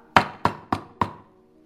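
knock on a door

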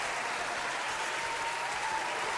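applause sound effect

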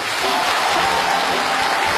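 audience applause

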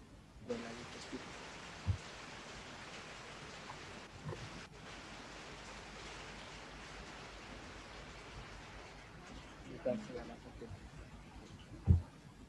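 rain falling

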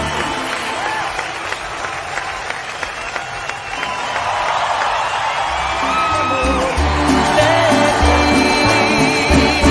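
audience applause and cheering

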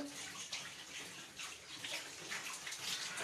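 water running

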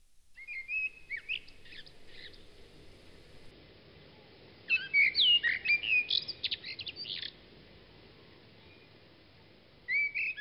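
blackbird singing

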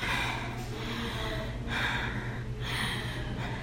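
heavy panting

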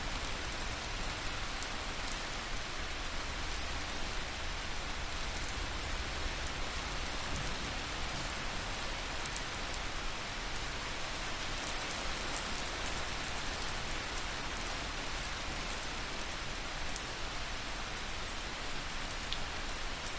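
water

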